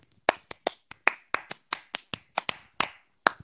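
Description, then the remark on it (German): Brief, sparse applause: about a dozen sharp, crisp hand claps at an uneven pace over a few seconds, moderately loud, with no voices. “Erstmal Applaus.”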